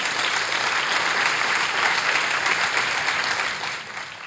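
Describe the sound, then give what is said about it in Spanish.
An audience applauds for God during a church sermon, a steady, dense wash of clapping that holds loud and even for several seconds before easing slightly at the end, with no voices rising above it. “Un aplauso para Él.”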